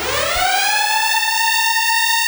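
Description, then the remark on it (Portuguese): A loud alarm siren sound effect winds up quickly, then holds a steady, piercing wail with bright harmonics. It fills the whole clip with no voices. “Soem os alarmes, peguem as crianças, o máximo de comida e fujam para as montanhas.”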